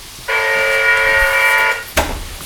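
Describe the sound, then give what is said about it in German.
A harsh, steady electric apartment door buzzer sounds once for about a second and a half, loud, then cuts off abruptly, followed by a brief clatter. “Obwohl Klingeln im Zusammenhang mit meiner Wohnungstür etwas zu schmeichelhaft ausgedrückt wäre.”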